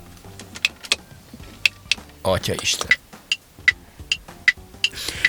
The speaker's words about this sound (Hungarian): valaki azt kamerázza, hogy csak a kezét látod, hogy beül ilyen exkluzív luxus verdákba, és végig nyomkodja az összes gombot bennük ezek csupán arról szólnak ezek a videók, hogy hallgassd a gomboknak a meg a tekerőknek a hangját.